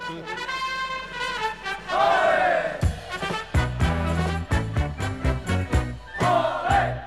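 A recorded Spanish pop song plays loudly, opening with bright sustained instrumental chords before a bouncy, steady bass rhythm kicks in beneath the melody.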